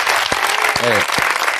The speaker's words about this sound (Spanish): Lo mejor de todo es que hoy cumple años Francisco Ibáñez, el creador de Mortadelo y Filemón, un- una leyenda. Un aplauso para él.